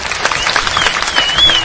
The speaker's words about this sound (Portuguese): Palmas pra criação, parabéns.